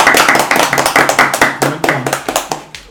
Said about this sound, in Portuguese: Então, salva de palmas.